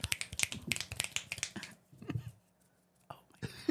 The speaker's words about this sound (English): There's our first and last snaps on this podcast. I can't snap my fingers.